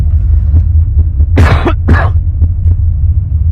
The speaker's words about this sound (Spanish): Sigo con esa tos. Es una especie como de gripe.